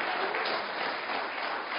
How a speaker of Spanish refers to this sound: Gloria a Dios. Gloria a Dios. Dele palmas al que vive. Sea bendito su santo nombre.